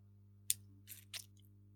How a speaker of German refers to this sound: Gut. Ich habe hier, glaube ich, einen Wackelkontakt mit meinem Headset. Hörst du mich noch? Ja, ich höre dich die ganze Zeit. Ich höre ah, dich auch klicken. Alles gut. Okay. Ich hoffe, das Klicken kann ich ja mal rausschneiden